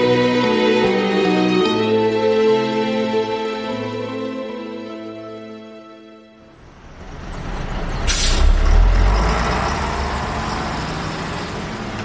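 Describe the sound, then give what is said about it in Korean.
Soft music plays for about six seconds, then gives way to the rumble of a bus pulling in at a bus stop, with a short brake squeal and a loud burst of air-brake hiss as it stops. “여기 정류소에 경기도 안산 가는 버스가 서나요?”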